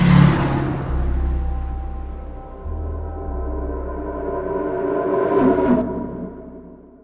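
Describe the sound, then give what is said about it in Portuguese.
A suspect car's engine hums and rumbles steadily, then surges with a brief whooshing rush near the end as the car speeds off. No one speaks. “Mas logo se afastou em velocidade,”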